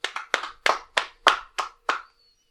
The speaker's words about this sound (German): Woo! Also Applaus für die drei.